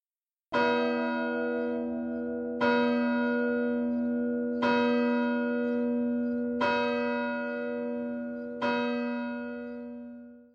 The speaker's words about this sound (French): L'écho des cloches rebondissait sur les pavés des rues désertes. Minuit venait de sonner, mais personne ne dormait dans la ville.